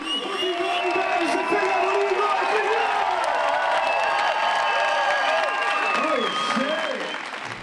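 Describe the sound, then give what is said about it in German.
An audience, thrilled by the first part of a performance by female hip-hop artists, applauds steadily and loudly, with cheers and whoops rising above the dense clapping throughout, easing off slightly at the very end. “Die Erleichterung ist den Hip-Hopperinnen anzusehen und das Publikum ist begeistert vom ersten Teil.”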